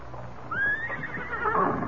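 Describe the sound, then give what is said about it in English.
A horse neighs once, a rising then wavering whinny lasting about a second and a half, clear over a low background rumble with no talking, as two men come from a cafe to get their horses and ready to mount. “Me kneel down to take stone from Scout's Hope, and two men come from cafe to get horses.”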